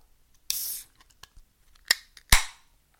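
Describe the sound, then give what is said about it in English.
A beer container is opened: a short fizzing hiss, a few small clicks, then a sharper snap with a burst of escaping gas that quickly fades. No one speaks. “Well, now I'm going to open this little puppy up just so I can tell you how it tastes.”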